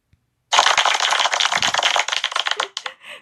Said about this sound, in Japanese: なんかこの拍手を使ってみたかったっていうね